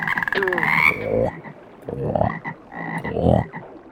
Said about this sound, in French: Pendant la récréation, Maître Renette surveille la mare de ses gros yeux globuleux. Autour de lui, les grenouillettes coassent de tous les côtés.